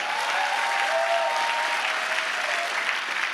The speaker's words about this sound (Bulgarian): Ръкопляска, ако наистина вярваш.